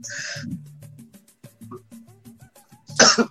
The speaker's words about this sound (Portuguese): Eu vou tossir.